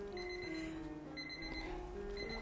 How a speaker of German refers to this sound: Oh, sag mal, was piepst denn da so komisch? Keine Ahnung. Ich habe gedacht, das kommt aus deinem Zimmer. Nee, nee, das kommt doch aus dieser Kiste da.